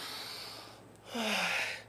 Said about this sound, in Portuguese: Não, respira fundo, respira fundo.